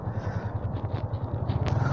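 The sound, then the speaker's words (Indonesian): A motorcycle engine hums steadily with a low, pulsing throb, wind and road rumble filling the background as it rides along on the street. “gue juga nggak tahu sih ini soalnya gue di motor sekarang”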